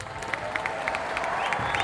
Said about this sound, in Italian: Accolto da un'ovazione, il leader alza la mano salutando la folla.